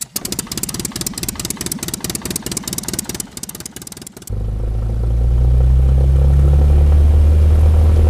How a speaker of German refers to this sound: Wir besteigen die Treppe ins Flugzeug. Alle im Flugzeug! Jetzt startet unser Flugzeug mit lautem Motorengeräusch.